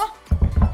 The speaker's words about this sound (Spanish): Y mira, voy a tocar literal que suena así. Yo no sé si es Batman o qué está pasando. Yo no sé, pero bueno, voy a tocar madera y que se escuche.